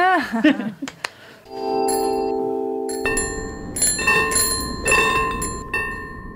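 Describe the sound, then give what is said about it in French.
An old-fashioned bicycle bell rings several times, bright metallic dings that linger and overlap, fairly loud, after a brief burst of laughter-like voice at the start. “On dirait un tram, mais ce n'est pas un tram, c'est une sonnette old school.”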